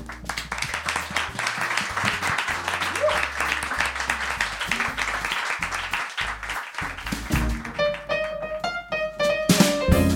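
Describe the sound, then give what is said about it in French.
An evening audience applauds itself for attending, a dense wash of many hands clapping with scattered whoops, while some music begins to rise underneath toward the end. “J'aimerais qu'on vous applaudisse vous parce que vraiment, merci beaucoup d'avoir été là ce soir.”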